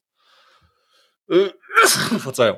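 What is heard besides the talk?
sneeze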